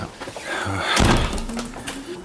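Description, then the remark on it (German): The entrance door of a playing card factory's museum workshop is pushed open with a solid thunk near the middle, followed by a short creak and rattle, against faint background noise. “Spielkartenfabrik, Museumswerkstatt Eingang. Hier sind wir richtig. Dann gehen wir mal rein. Muss man klopfen? Nee, einfach so, ne?”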